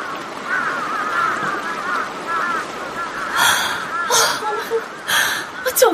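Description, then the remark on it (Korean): A flock of rooks calls continuously in a dense overlapping chorus of harsh caws, with several louder bursts standing out toward the end. “때까마귀예요. 근무 시작됐나 봐요.”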